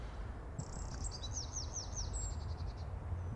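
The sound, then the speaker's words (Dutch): A Eurasian wren, perched close by on twigs above reeds, sings a high, rapid song of repeated looping notes that runs into a fast trill, lasting about two seconds over a steady low rumble. “Nou, dat was een winterkoning.”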